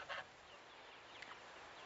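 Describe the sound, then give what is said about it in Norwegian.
A chicken gives a short cluck at the start, followed by a fainter cluck a moment later, both set against a steady background hiss with no one talking, as the birds are about to be moved. “Nå skal vi flytte noen fugler.”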